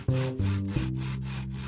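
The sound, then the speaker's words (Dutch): A saw cuts a thin slice containing the growth rings from an oak trunk: a loud, continuous mechanical drone that shifts pitch a couple of times as the blade bites into the wood, with no voices. “Er wordt een dunne plak van de stam afgezaagd met daarin de jaarringen.”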